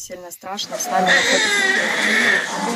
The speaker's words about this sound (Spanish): Para decenas de madres, el llanto de sus hijos recién nacidos les impide escuchar la batalla feroz que se libra en las afueras de este hospital. También en Kharkov, una a una velan por la vida de los testigos más pequeños de esta guerra.